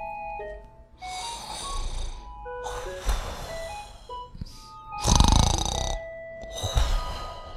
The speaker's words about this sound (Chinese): 哇！呼噜声又粗又响，这一定是爸爸的呼噜声。